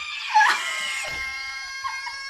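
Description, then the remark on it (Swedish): A rooster crows, one long, loud, strained call that rises sharply and then holds a raspy, sustained note for about two seconds, with no one speaking. “Vilken sjuk tupp.”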